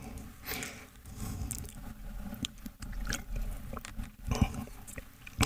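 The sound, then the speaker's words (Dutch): Wet mouth sounds of someone sipping water, with small slurps and swallows repeating unevenly over a few seconds, fairly quiet and with no talking. “Dus ik moet gewoon even een slokje water nemen.”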